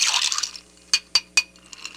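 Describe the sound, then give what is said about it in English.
A metal bar spoon stirs a cocktail made with strawberry shrub in a glass, giving three bright, evenly spaced clinks and a few fainter taps after a brief swirl of ice and liquid at the start. “At this point, I'm going to give the cocktail a mix. The bar spoon.”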